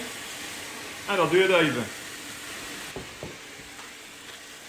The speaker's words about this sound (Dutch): Wat je nu hoort is het afstomen van de machine om drukloos te maken.